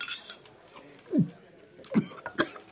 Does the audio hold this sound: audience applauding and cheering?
no